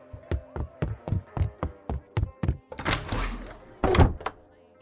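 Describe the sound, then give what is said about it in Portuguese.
A quick, even run of thudding steps gives way to a brief rattling scuffle as a woman hurries out through a door, which shuts with a solid thunk that fades into quiet. “Ela sai pela porta, rapidamente.”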